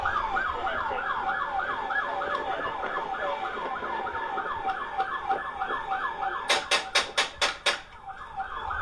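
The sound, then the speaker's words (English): A wailing emergency siren cycles steadily, then about six sharp, loud gunshots ring out in quick succession near the end, fired by a man from inside his car through his own window in Las Vegas. “That's him shooting through his own window.”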